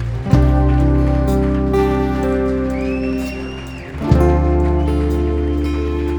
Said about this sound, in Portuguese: salva de palmas a Jesus.